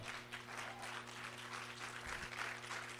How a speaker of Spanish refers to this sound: Alguien que lo cree le dé un aplauso al Señor.